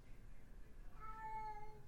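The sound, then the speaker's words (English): A single drawn-out cat meow rises and falls near the middle, not loud, over a low steady background hum. “What's up? Cat. What you want?”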